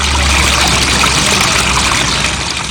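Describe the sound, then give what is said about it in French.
Steady rush of flowing river water, a dense continuous babble and hiss that stays even throughout without pauses or voices. “De là, elle descend jusqu'au fleuve Ladon.”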